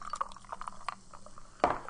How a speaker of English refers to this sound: So this is the sound of us opening our uh, our monster punch, right? And getting a little a little pour over the ice here.